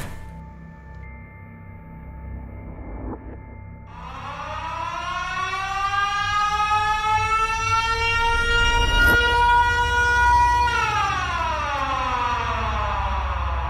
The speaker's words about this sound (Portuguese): Ah, essa sirene não falha mesmo. Eu preciso descobrir o que, que é isso.